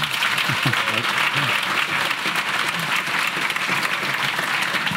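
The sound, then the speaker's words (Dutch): Sustained applause from a sizable festival audience at the Grondvest festival in Nijmegen, dense and steady for several seconds, with some cheering and indistinct voices mixed into the clapping. “Mag ik jullie even horen in de kring?”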